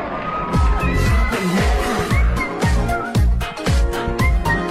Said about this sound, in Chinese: 啊，这还有尖叫声啊！欢呼声，我试一下欢呼声。哎哎，是不是立马显得呃呃有点像综艺节目了？